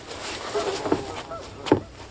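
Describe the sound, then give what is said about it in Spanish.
Three geese honk a few times, with two sharper, louder calls standing out against a soft, rustling outdoor background. No one speaks. “Son tres gansos que atrapé ayer.”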